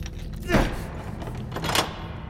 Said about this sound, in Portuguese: Após três ou quatro tentativas, ele encontra a chave certa e tranca a porta da despensa para o porão.